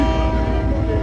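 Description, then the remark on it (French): A departing freight train rumbling loudly, a heavy steady low roar with a sustained tonal hum on top, filling the whole moment without pause. “C'est le train de marchandises qui s'en va”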